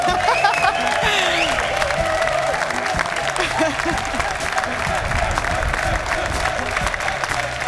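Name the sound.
studio audience applause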